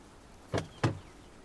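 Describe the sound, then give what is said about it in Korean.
The driver's door of a car parked on an unpaved road opens with two quick mechanical clunks about a quarter second apart, fairly crisp, with no voices and quiet surroundings. “차에 도착한 그는 운전석의 문을 열었다.”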